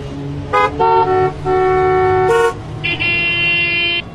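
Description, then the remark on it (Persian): Several car horns blare in overlapping bursts on a busy, heavy-traffic street in Tehran, Iran, some short toots and some long sustained honks at different pitches, loud over a low rumble of traffic. “یا اگه ماشین جلویشون دقیقا همون لحظه که چراغ سبز میشه حرکت نکنه چنان بوغی میزنن که انگار بدترین اتفاق دنیا افتاده”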